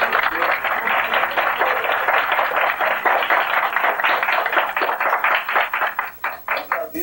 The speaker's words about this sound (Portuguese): Eu peço para vocês, após os cumprimentos dessa dupla improvisada, vamos ver se esses caras prestam, né? Pode aplaudir.